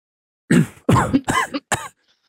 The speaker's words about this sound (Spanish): logras toserlas y salen.